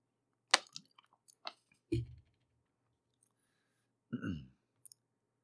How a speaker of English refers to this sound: Okay, quick sip of water, and we'll go right on into the next one.